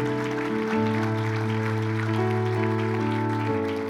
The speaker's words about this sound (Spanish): Dale ese aplauso bien fuerte al Señor.